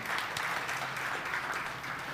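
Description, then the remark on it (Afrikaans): A crowd claps together in steady, dense applause, a continuous crackle of many hands lasting a couple of seconds with no voices over it. “Geef hulle ook 'n lekker hande klap.”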